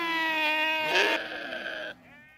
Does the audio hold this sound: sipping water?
no